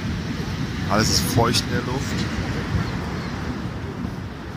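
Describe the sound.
A steady, full-bodied roar of water plunging into a gorge at Niagara Falls fills the scene without letup, loud, while a person speaks briefly over it.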